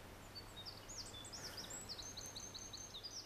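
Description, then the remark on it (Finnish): A Eurasian wren sings a rapid, bubbling stream of high, sharp notes and trills that runs through the whole clip, fairly faint over a low steady background hum. “Kun kuulee metsässä kulkiessa peukaloisen äänistä, pulppuilevaa, riemukasta laulua, kannattaa ehdottomasti hetkeksi pysähtyä ja koittaa nähdä ääntelijä.”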